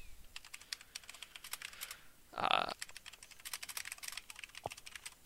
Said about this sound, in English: do you hear my uh, thing going off do you hear my keyboard yes